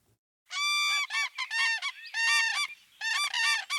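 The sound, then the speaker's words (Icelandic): Loud, rolling trumpet-like calls of common cranes ring out in a rapid series of about half a dozen bursts, rich and harmonic, with no talking; a pair of common cranes at Héraðssandur that raised a chick this year. “Grátrönu pari sem sérst hefur á hérasandi undanferðin sumur tókst að koma upp unga í ár.”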